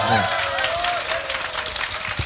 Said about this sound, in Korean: 아, 여러분들 스스로에게 한번 박수 한번 보내주시기 바랍니다.